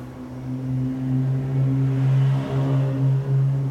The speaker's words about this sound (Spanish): Disculpen los carros, acuérdense que vivo al lado de una vía principal.